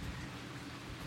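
A soft, steady hiss of rain falling outdoors on a gray day, heard from a front porch as an even wash of noise with no voices or distinct drops.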